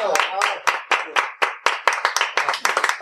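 A short round of applause: about a dozen sharp, crisp claps in a fairly steady rhythm, sounding like a few people clapping together rather than a large crowd. There is no talking.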